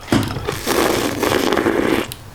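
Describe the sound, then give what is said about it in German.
A beer bottle, just opened for a tasting, fizzes and foams over, a steady crackling hiss lasting about two seconds with small bursts of bubbling, with no one speaking. “Kann das sein, dass es gerade geschäumt hat?”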